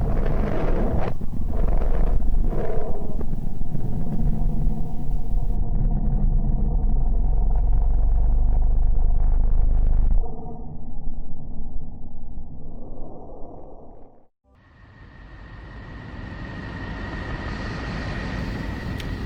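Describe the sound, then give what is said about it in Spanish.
A deep, roaring space-sound drone for the planet Mercury, steady and loud, changing character twice: it thins to a hollow hum, dips briefly, then returns as a brighter, hissing wash. No voices. “Ahora podremos escuchar el sonido de Mercurio.”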